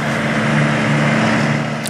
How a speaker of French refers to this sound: nous voici dans le camion de Joseph qui sillonne la Haute-Vienne. Joseph, un boulanger de campagne qui ne fait pas seulement du pain. Il le livre dans les villages de la région.